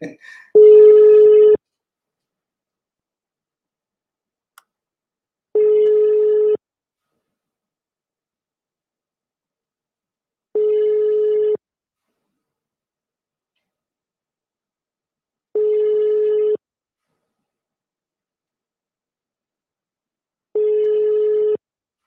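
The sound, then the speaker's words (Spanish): A phone call to a personal number in the United States, dialed again, rings out over a speakerphone: five steady electronic ringback tones, each about a second long, repeating every five seconds with silence between them. “Vamos a llamarlo otra vez”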